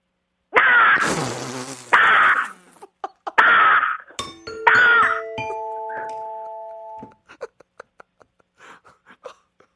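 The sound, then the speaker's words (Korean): A woman in her early thirties imitates a crow with four loud, harsh, raspy caws in quick succession. An electronic ding-dong chime rings over the last call, followed by faint scattered clicks. “왜냐면 워낙 많이 하고 아, 까마귀 소리를 듣고 이렇게 좋아할 분은 별로 없는데 그래도 예, 여성분이 하는 30대 초반의 여성분이 하시는 거죠. 까마귀 소리 들어보겠습니다.”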